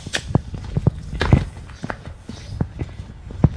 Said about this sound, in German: Das könnt ihr hören alles. Ja, ja, ich konzentriere mich gerade. Da, Schlüssel. Ah, das, ja. Schloss.